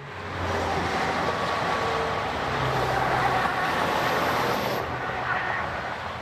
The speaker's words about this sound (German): Innsbruck, Tirol. Der Berg Isel. Hinter der Skisprungschanze fahren tausende Autos und Lastwagen aus ganz Europa vorbei auf dem Weg über den Brenner.